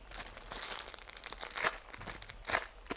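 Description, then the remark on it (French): Plastic tissue packets crinkling in a cinema during a film as people cry, a continuous dry rustle with sharper crackling bursts, the loudest around the middle and near the end. No voices are heard. “Ah, on entend le bruit du plastique des paquets de mouchoirs alors on sait que les gens sont en train de pleurer.”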